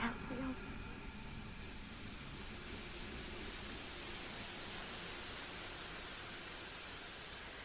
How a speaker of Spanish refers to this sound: La estática de ese televisor me está matando. Ah, creo que no le hace nada bien a los enfermos.